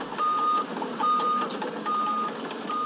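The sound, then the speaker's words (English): Heavy equipment sounds its reversing alarm while ripping out seven acres of invasive plants: a steady, mid-pitched beep repeats about four times at an even pace over a continuous engine rumble, with no voices. “She says back in June, heavy equipment began ripping out seven acres of those invasive plants.”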